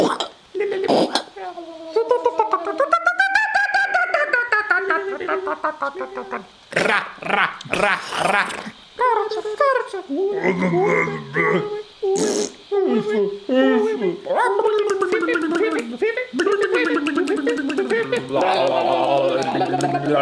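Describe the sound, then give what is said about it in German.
A dense jungle soundscape of animals screaming and wailing, with overlapping shrill, warbling calls and sharp bursts filling the air continuously at fairly high volume, with no talking. “Wir können ja vielleicht ganz kurz mal die Mikrofone in den Dschungel richten und einfach mal diese Geräuschkulisse wirken lassen.”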